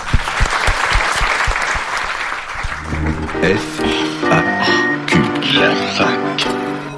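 A crowd applauds loudly and steadily for about three seconds, a dense wash of clapping, then a short musical jingle takes over as the clapping fades underneath it.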